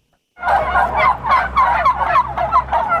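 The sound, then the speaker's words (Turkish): Turkeys put on display for sale ten days before New Year gobble loudly and continuously, a rapid warbling chorus of repeated bursts lasting a few seconds, with a low background rumble underneath and no one speaking. “Yılbaşına 10 gün kala hindiler görücüye çıktı.”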